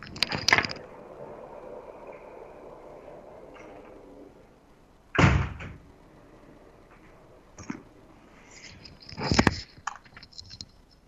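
A window in a consulting office that faces the Paseo del Bajo, an avenue with many passing cars, being shut: four sharp knocks and scraping clunks spaced several seconds apart, the middle one loudest, with a steady low background hum between them and no one talking.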